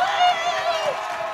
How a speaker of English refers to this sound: I love the applause. All that for me.